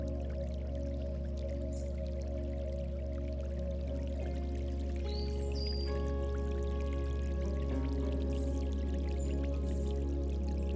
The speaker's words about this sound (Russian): Профи берет лейку, наполняет ее водой из шланга